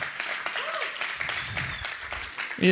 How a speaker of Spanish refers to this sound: Vamos si le va a dar un aplauso de, de, pero bien, aquí está la fila que más aplaude.